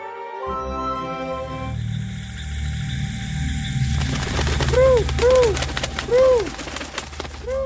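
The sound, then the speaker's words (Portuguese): A flock of pigeons passes overhead, with a busy fluttering rush and a few repeated rising-and-falling calls, heard over a steady tonal musical backdrop. “Pessoal, o que é aquilo lá no céu? Uma revoada de pombos.”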